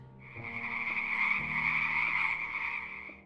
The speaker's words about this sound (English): Red Slad can stun by emitting a loud croak that affects all opponents within 20 feet. For the most part, that's all that Red Slads do. Yeah, if an eight foot tall frogman croaked at me really loudly, I'd probably be pretty stunned.